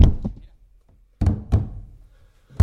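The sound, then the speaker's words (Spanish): Heavy thumps on a wooden table, played as a panadera folk rhythm, roughly five loud hits in a loose rhythm, each a deep knock with a short ringing decay, with quiet gaps between them. “El corazón de esta mesa suena lo mismo que el mío.”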